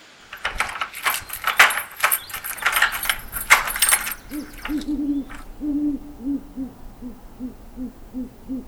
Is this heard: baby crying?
no